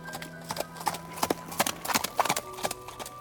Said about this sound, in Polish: koń Hengren poczuł potężną moc tego człowieka, więc chcąc ostrzec swojego pana, zarżał i wbił kopyta w ziemię